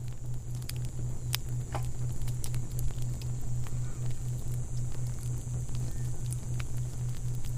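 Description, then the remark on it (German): A fire crackles steadily with scattered sharp pops and snaps over a soft, constant background hiss and low hum, moderately quiet, with no voices. “Du legst dich bäuchlings hinein und spürst sofort die angenehme Wärme des Feuers. Wie gut das duftet und wie schön das knistert.”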